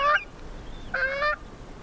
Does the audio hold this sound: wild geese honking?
yes